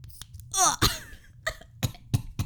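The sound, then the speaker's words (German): A nasal spray being pumped, with several quick hissing spritzes and sharp nasal sniffs in an uneven sequence, loud with no talking. “ist das Nassenspray gewesen?”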